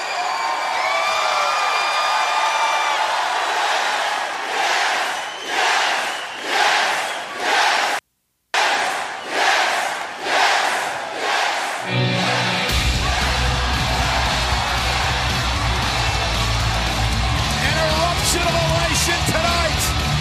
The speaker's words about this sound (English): Now check out this post-match celebration. Listen to this pop.